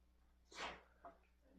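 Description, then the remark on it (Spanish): A single sharp sneeze bursts out, followed a moment later by a softer short exhale or sniff, with no talking. “Salud.”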